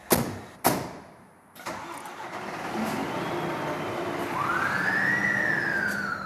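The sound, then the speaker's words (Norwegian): A heavy fire engine at the Stavanger city centre fire station cranks with a couple of sharp clunks, then rumbles up and pulls away on an alarm call-out with four firefighters as its siren begins rising and wailing near the end. No one speaks. “Fire brannmenn kaster på seg brannutstyret og rykker ut.”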